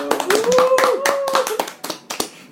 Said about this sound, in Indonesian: Tepuk tangan dong.